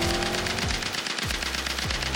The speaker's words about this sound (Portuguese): O carro sai, se aproximando e aquela parada girando. Véi, começa um disparo.